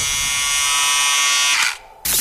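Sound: electric shaver buzzing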